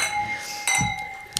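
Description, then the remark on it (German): Drinking glasses clink together in a New Year's Eve toast, a bright ringing tone hanging in the air, followed by a louder strike and a second light clink near the end, with faint voices underneath. “Sofort die Gläser klingen lassen, bitte.”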